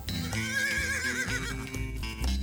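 A horse gives one loud, quavering whinny lasting about a second, its pitch wavering up and down, set against a steady, full background sound.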